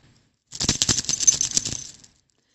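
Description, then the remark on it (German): A key hanging on a chain worn around the neck rattles, producing a rapid, dense burst of bright metallic clinks for about a second and a half, with no voices. “Du hattest in der letzten Live-Sendung um das Geräusch von einem Schlüssel gebeten.”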